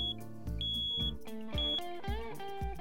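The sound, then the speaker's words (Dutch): A smoke detector with a probably empty battery sounds its low-battery alarm, which goes off every half hour, with shrill, high-pitched beeps recurring at intervals over loud, rhythmic tonal sounds underneath; no one speaks. “dat is mijn rookmelder. Die gaat om het half uur af. En ik heb een batterij die is waarschijnlijk leeg.”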